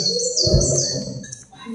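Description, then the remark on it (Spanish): Small birds chirp continuously in the background, high-pitched twittering calls layered over a low, steady ambient rumble, fairly faint with no voices present. “Los pajaritos están de, fondo.”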